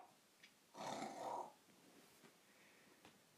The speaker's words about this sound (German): Mein Gott, ignoriert mein Hund. Der schnarcht immer so laut.